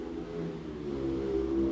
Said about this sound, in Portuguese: Olha a moto passando.